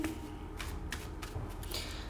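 Shuffling of tarot cards for a card reading, a series of quick papery riffles and slaps in uneven bursts over a low hum, with no one speaking.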